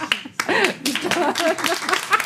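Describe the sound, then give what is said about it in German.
One person applauds themselves with a handful of sharp hand claps at an uneven pace, mixed with laughter and a speaking voice throughout. “Da muss ich mal selber einen Applaus für geben.”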